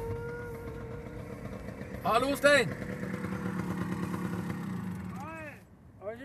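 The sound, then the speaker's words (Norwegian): The engine of an original 50-year-old moped runs steadily with a low, putting drone, while people exchange brief greetings over it. “Han har en moped som er 50 år gammel.”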